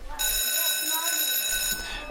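A school bell rings in the evening at the end of the school day in one continuous, shrill electric peal lasting about a second and a half, loud, then cuts off abruptly.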